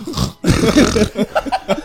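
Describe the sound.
A person imitates a pig's oinking with throaty, grunting snorts: a long rough burst followed by several short, choppy grunts in quick succession, fairly loud and with no speech.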